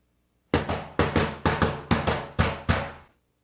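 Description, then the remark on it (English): Eight sharp knocks rap out a quick drum-like rhythm, grouped in uneven pairs with short pauses between, loud with a slight ring after each hit, and no voices. “Uh, here is drumming knock number two.”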